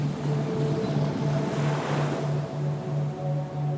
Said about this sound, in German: In das kleine Naturbad vor uns schwappt hin und wieder eine Welle und sorgt für frisches Wasser.